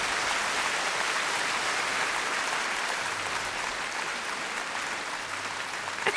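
Steady, dense applause from a crowd, a continuous crackling wash of many hands clapping at a constant level for several seconds with no voices standing out.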